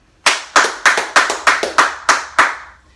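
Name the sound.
audience applause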